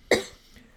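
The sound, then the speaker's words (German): A single short, harsh throat-clearing burst, fairly loud, fading quickly into quiet with no talking around it. “Ja, ja, ähm, deshalb sage ich, ich auch räuspern, du steckst an.”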